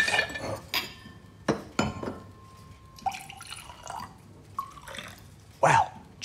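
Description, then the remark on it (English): Glass clinks with ringing tones, followed by splashy, gurgling bursts of wine poured into a glass and a few drips, with no talking. “Now, there should be some wine left over here from our little celebrations.”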